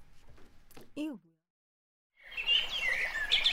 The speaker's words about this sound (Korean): 자, 그럼 저희는 로고 듣고 무치뉴스 브리브리 브리핑으로 돌아오겠습니다. 그럼 로고 주세요.